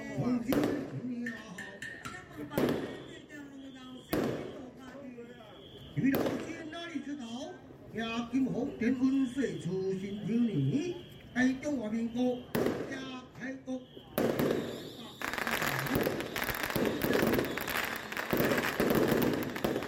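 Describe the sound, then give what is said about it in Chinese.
Taiwanese opera (gezaixi) gongs and drums clamor during the short opening piece (banxian) played before the formal start of a performance: loud, irregular strikes punctuate a wavering sung voice, then the final few seconds swell into a dense, continuous clash of ringing metal and drumming. “啊，那这个是歌仔戏的非常热闹、锣鼓喧天的声音。”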